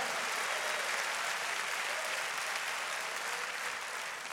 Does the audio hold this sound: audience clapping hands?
yes